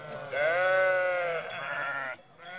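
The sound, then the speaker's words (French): A grazing livestock herd bleating: one long, loud, wavering bleat lasting nearly two seconds, then a brief pause before another bleat starts. No voices. “Observe le troupeau qui paie sous tes yeux.”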